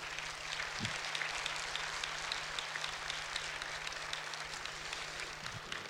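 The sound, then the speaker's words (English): A church audience at Bayview Glen applauds steadily for several seconds, a dense wash of many hands clapping at once with no pauses, holding at an even level throughout. “Now we can clap.”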